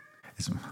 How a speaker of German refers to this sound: Ja, das war die Katze.